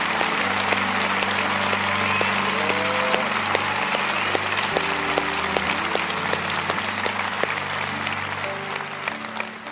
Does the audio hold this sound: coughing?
no